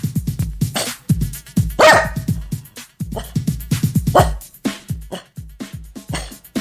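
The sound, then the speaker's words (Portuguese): A dog named Frango barks agitatedly in rapid, repeated bursts, loud, with a few sharper, higher yelps mixed in and no talking over it. “E o frangão tá bolado. Late frango.”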